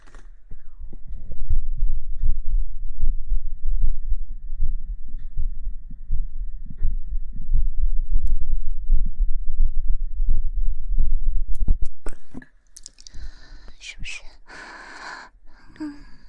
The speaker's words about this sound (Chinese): 心脏跳得太快了